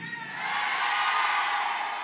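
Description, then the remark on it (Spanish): An audience of women lets out a loud, sustained collective shout, a high-pitched war cry that swells within the first half second and holds steady at full strength for about two seconds. “Ok, un grito de guerra a las mujeres, las Déboras.”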